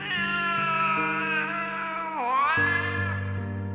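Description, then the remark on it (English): A cat lets out a long, loud, wailing yowl in the evening as people lie down to sleep, its pitch sliding down and then rising again into a drawn-out cry, with no other sounds around it. “The worst, however, was the crying.”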